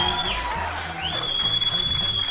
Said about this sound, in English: You may have noticed the, the screaming, our screaming fans here. Uh, we don't often have that uh, because we just want to uh, keep ourselves from our screaming fans, but we are at the Unite, IE Redlands Tea Party Patriots Christmas Party